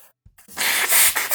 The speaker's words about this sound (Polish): Miałeś się pożegnać, a nie smarkać. Nie wytnę tego specjalnie. Niech mają.